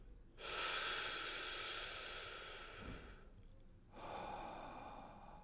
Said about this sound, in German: Atmen Sie ein und aus. Mit dem Zwerchfell atmen, ganz wichtig, ne, nicht wahr? Mit dem Bauch atmen.